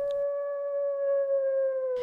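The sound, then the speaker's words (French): A wolf lets out one long, sustained howl, holding a steady tone that slowly sinks in pitch, heard clearly on its own with no other sounds around it. “On trouve bien encore quelques cochons et moutons sauvages dans les forêts, mais il devient difficile d'y mettre les pieds, car les prédateurs, les loups surtout, ont proliféré.”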